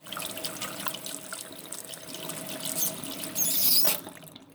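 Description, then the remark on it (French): Water runs steadily from a tap, then a brief high squeak of the handle turning, and the flow cuts off, leaving near silence. “Il peut ainsi informer la NASA de la situation qui, de son côté, pourra prévenir l'ESA, l'Agence spatiale européenne, et ainsi envoyer Thomas Pesquet pour fermer le robinet.”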